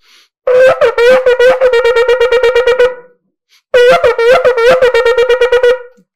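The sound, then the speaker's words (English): A shofar sounds the shevarim-teruah twice, each blown in one breath: a loud, brassy horn tone broken into a fast chain of pulses that run together so the shevarim and teruah cannot be told apart, with a short pause between the two blasts. “goes straight into the trua because it has to be the, that most the way most of the Tamidi Chazon Ish and the Chazon Ish is that you can't be able to tell the difference where the shever ends and where the trua begins.”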